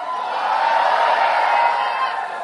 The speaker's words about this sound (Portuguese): grito de vitória, meu irmão.